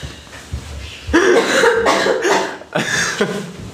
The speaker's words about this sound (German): Wir sind nach einer kleinen Hustpause gleich wieder da.